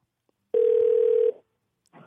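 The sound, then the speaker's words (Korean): A steady telephone ringing tone on a phone call being redialled after it dropped: a single sustained mid-pitched electronic beep lasting under a second, followed by a brief soft burst of noise after a short silence. “자, 아, 다시 한번 걸겠습니다.”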